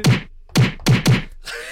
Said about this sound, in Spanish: Yo antes era muy dada de que si yo quería llorar o me daba así como que, ay, me hicieron y quería llorar, yo me daba así una cachetada, autocachetada.